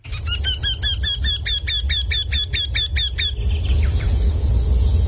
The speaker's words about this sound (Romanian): dintre aceste sunete ca să vedeți ce frumos e și cât de mult ne lipsesc cântecele și trilurile păsărilor în orașele în care trăim.